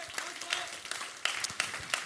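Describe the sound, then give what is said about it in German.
A church audience applauds for the camera crew, a dense wash of many hands clapping with a few sharper claps standing out, steady and moderately loud across the whole moment. “Und ich weiß, ihr habt jetzt schon einige Male geklatscht, aber können wir nochmal für unseren anderen Freunden auf der anderen Seite der Kamera einfach nochmal einen riesen Applaus geben.”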